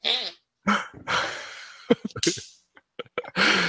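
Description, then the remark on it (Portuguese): A squelchy armpit fart noise made by hand, sputtering out in several quick bursts of varying length with short pauses between, fairly loud and with no talking over it. “Foi, eu fiz aqui no sovaco para parecer um peido.”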